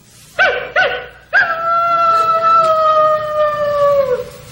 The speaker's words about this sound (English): That's a coyote. What was that? I don't know what the hell that was. that was supposed to be a woodpecker running under a coyote's leg, but what that was, I don't that, that boggles me.